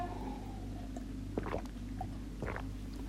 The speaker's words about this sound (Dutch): Ik moet even een slokje water drinken.